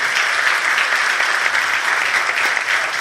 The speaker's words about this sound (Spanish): Un aplauso a las mamás, ¿eh? a las mujeres aquí presentes.